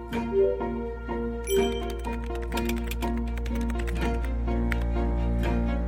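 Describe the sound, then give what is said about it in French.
Rapid clicking of computer keys as someone types out a story continuously, moderately loud, over a gentle tinkling melody of bell-like notes. No one speaks. “D'abord sur des petits bouts de papier, puis le soir sur mon ordinateur.”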